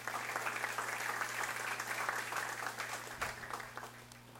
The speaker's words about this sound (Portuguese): Diga amém. Dê um aplauso ao Senhor Jesus por isso.